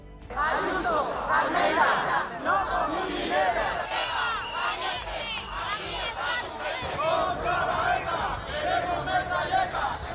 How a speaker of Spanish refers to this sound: al grito de ETA asesinos o viva la Guardia Civil, medio millar de personas trataban anoche de boicotear el estreno en Madrid de la obra de teatro «Al Chasu».